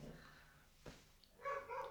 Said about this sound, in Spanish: ¿Qué pasa? No sé. ¿Están robando? No, pero están ladrando mucho, ¿no?